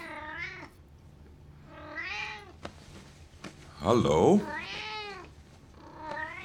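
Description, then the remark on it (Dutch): A cat meows repeatedly, several drawn-out rising and falling cries, with a brief spoken word from a person in between. “Waar kom jij nou vandaan, katje? Jou heb ik hier nog nooit gezien.”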